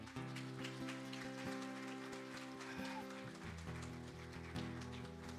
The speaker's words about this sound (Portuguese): Amém, igreja? Você crê? Mesmo? Então aplauda Jesus por isso.